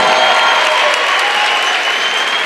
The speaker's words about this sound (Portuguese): Vamos, aplaude, gente, aplaude Jesus, aplaude Jesus a vida dele.